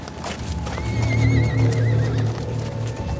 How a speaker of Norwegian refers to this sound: Hester som vrinsker. Lyden blir høyere og høyere.